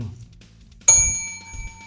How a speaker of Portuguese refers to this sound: Parará, parará, parará. Piriri, piriri, piriri. O cara comprou a campainha mesmo, cara.